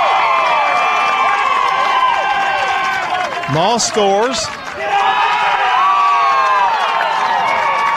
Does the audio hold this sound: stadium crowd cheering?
yes